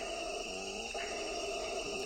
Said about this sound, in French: À la troisième minute de l'enregistrement, dit Krauss, un singe hurleur vocalise.